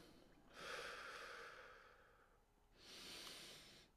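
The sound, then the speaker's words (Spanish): A slow, deep breath drawn in and then let out during a guided meditation breathing exercise, two long airy whooshes with a short pause between them, no talking. “Inhalo y exhalo.”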